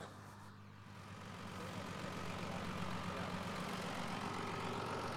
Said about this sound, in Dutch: Ja, de trekker die stopt nou.